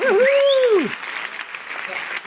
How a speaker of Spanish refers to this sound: tenemos de vuelta los efectos especiales gracias a Gustavo. Muy bien. Bravo. Ya era hora, ya era hora, ya era hora Por ahora solo tenemos aplausos.